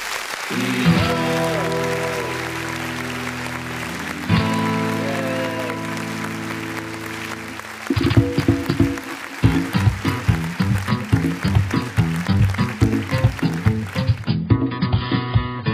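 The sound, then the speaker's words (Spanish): A song begins with sustained, ringing chords for several seconds before a full band kicks in with a punchy, steady beat. It plays loud and up front, with no talking. “Bueno, vamos a escuchar la canción de...”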